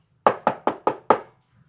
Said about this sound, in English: She knocked on the door.